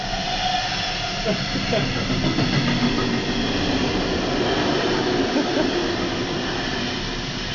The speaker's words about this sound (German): Ein Zug.